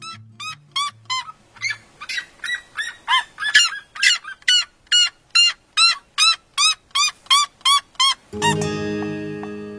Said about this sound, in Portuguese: A Biju, no caso, era uma siriema, um pássaro que você talvez conheça, que tem uma perna bem longa e um topete que sai do bico. É um baita bichão grande canta alto pra caramba.